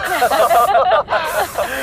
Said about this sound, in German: Ein Mini-Jetpack. Im All kann man ganz einfach sprühen und braucht die Flügel nicht zu bemühen.